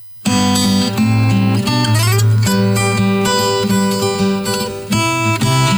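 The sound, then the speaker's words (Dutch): An instrumental piece with no singing starts abruptly after a brief pause, then plays loud and continuous, with rich sustained harmonies, a steady low end and bright upper tones. “en …, eh, even zonder zang,”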